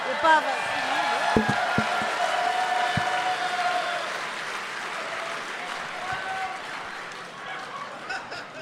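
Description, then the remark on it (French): Sustained audience applause for the spotlight operator, a dense, steady clatter of many hands clapping, with a few sharper thumps early on and the crowd noise easing slightly toward the end. “Moi, j'aimerais ça qu'on donne une bonne main d'applaudissement pour que le gars.”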